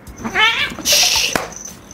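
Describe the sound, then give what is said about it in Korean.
A cat lets out a loud, wavering yowl, followed by a harsh, breathy burst of noise, like an agitated cat caterwauling with no one speaking; the cat is excited by catnip. “이렇게 흥분하는 경우도 왕왕 있거든요. 캣닙이 때문에.”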